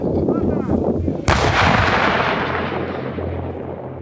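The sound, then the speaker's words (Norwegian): A single booming Ukrainian artillery cannon shot cracks out sharply as it fires a shell, then rolls away in a long, fading rumble, preceded by low ambient noise outdoors. No one speaks. “Det jeg ble fortalt, var at eh, denne ukrainske kanonen vil skyte tre granater, og så vil den flytte seg.”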